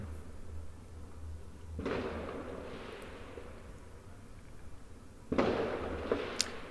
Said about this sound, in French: Donc là, c'est reparti, je, pense, pour des feux d'artifice.